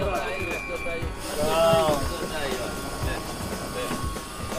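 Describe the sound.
A CP passenger train rolls into a station, where a group of cyclists loads their bicycles, with a steady low rumble, a brief rising and falling metallic squeal in the middle, and indistinct voices murmuring in the background.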